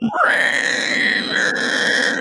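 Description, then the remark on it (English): A voice imitates a long, shrill scream, holding a steady high pitch for about two seconds at full loudness, with a harsh, strained edge and a slight waver partway through. “And I turn around, and it was a giant spider, and then it ate me, and I still remember the scream. It went,”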